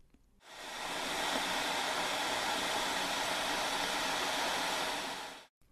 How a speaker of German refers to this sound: gibt es sehr viele kleine Knelle hintereinander und das ist das Rauschen, das man hört. Wenn jetzt die Heizplatte am Anfang nach dem Einschalten schnell heiß wird, wird es auch schnell lauter, weil sich immer mehr kleine Bläschen bilden.